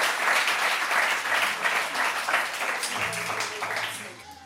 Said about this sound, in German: Großen Applaus für unsere Radiohörer.